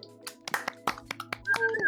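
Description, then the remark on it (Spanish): A short burst of scattered applause, about a dozen sharp, irregular claps over a steady low hum, ending with a rising, high-pitched whoop-like tone. “Un aplauso, gente, por favor.”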